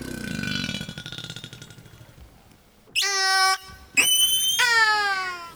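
Orca vocalizations: a low, rasping pulsed buzz that gradually fades, followed by three loud, harmonic-rich squealing calls, each starting with a sharp upward sweep. No one speaks.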